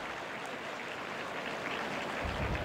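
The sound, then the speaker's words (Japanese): Sustained applause from a large outdoor crowd of about 8,400 fans at Hanshin Racecourse, Japan, for the winning horse Potager as it is led away after the race; a dense, steady wash of clapping, swelling slightly toward the end, with no voices speaking over it. “引き上げるポタジェに大きな拍手が送られます阪神競馬場です”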